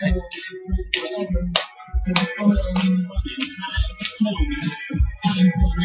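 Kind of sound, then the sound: crowd, hands clapping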